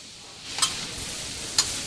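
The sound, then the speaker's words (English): A production cook fries vegetables and meat on the hot skillet of a Mongolian Grill in a station galley: a steady, fairly quiet sizzling hiss with two brief, sharp utensil scrapes and no voices. “stands over the Mongolian Grill's hot skillet, frying vegetables and meat, while a line of eager station residents winds along the edge of the galley.”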